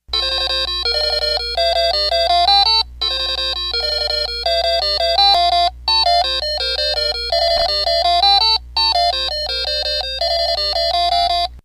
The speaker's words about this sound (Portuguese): Ah, sim, claro. A máquina de jogar Tetris, aquela máquina que a gente levava para a praia.